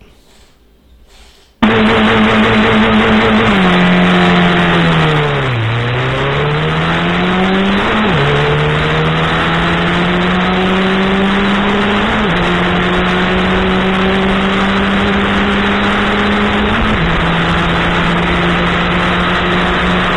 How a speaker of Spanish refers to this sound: Atención a lo que le pasa al momento de largarse la competencia dominical de la Fórmula 3 Metropolitana, obviamente en el Roberto Mouras de La Plata.